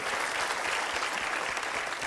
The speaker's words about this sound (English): Well, uh, would you guys give them a round of applause for sure?